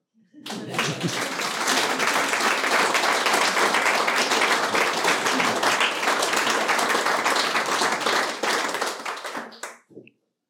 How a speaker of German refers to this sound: Ja, die Usancen des Hauses verlangen einen Applaus zunächst mal.